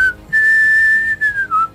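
A person whistles a lively, bouncy melody, a clear single tone gliding between sustained and short notes, close and loud with no talking.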